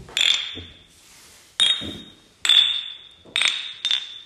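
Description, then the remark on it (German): Four bright glass clinks ring out one after another, each with a sustained high ringing tone that slowly fades, fairly loud, as glasses touch in a short beer toast in a kitchen. “In der gewohnten Umgebung, Küche, Pilzbier, kurzen Prost.”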